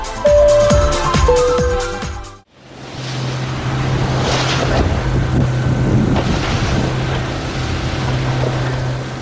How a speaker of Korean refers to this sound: 호주 오스트레일리아 화이트헤븐 비치에 도착했습니다. 오늘은 시원한 파도를 가르면서 웨이크보드를 타보려고 하는데요.